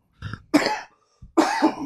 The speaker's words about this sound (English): Here comes the hacking cough.